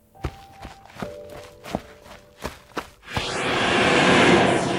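Six footsteps of a child getting up from a seat and walking away from their parents go off at a steady pace, each a soft thud over a faint sustained tone, before a broad rushing hiss swells in and fills the rest.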